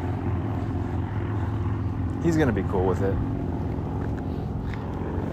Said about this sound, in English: those motorcycles, I guarantee you, just ro- are going by the sign that says noise ordinance is enforced. That's what the sign says. I don't. I'm. You heard them. You heard the motorcycles though.